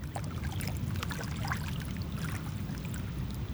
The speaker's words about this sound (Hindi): ये नदियों का कलकल बहता पानी उन पर चिड़ियों की चहक लगता है जैसे कोई सरगम छिड़ा है और हम उस पर थिरकते जा रहे हैं